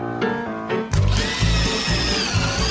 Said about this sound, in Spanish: Con un taladro, los simuladores agujerean el techo.